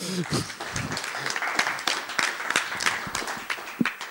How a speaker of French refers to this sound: Si on peut applaudir quand même les dessinateurs.